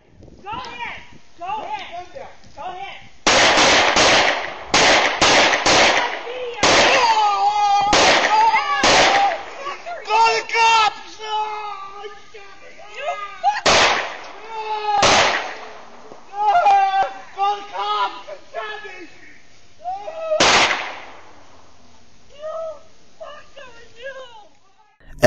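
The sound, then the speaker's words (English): A rapid volley of loud, sharp gunshots bursts out in irregular clusters in a shooting outside a home after an argument, with shouting voices heard between and beneath the shots, then a few scattered final shots. “one point, it looks like the shooters are shooting, but in the middle of this horrific crime, there's actually him going back into his home to change weapon.”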